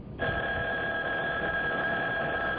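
A telephone rings with a steady, unbroken electronic tone that starts abruptly and holds at a constant loudness, slightly thin and band-limited, with no voices present.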